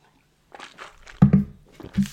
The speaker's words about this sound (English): Hang on, just a bit of water.